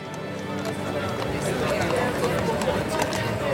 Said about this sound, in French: des dizaines de voitures à cheval commencent à déverser un flot d'invités devant la résidence des Vanderbilt